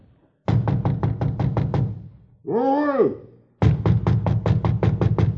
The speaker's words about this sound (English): went up to the fourth floor and knocked at the door.